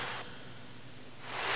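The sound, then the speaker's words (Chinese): Gentle ocean waves lapping at the shore: a soft, hissing wash that eases off, then swells again toward the end, with no voices present. “你可以听到海浪拍打着海岸的声音。”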